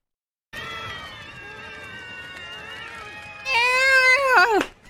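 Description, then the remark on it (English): A cat lets out a long, drawn-out meow that holds steady for several seconds, then swells louder and bends in pitch before cutting off. It is clear, with no talking. “Meow, meow, meow. Meow.”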